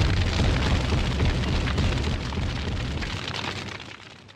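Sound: bomb explosion sound effect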